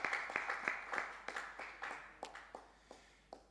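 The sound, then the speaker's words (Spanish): Scattered applause from a small group at a Mother's Day church service, a steady patter of overlapping claps at first that thins into a few irregular, isolated claps. Fairly quiet, with no voices. “Bueno, algunos están aplaudiendo. ¿Qué tal si todos aplauden?”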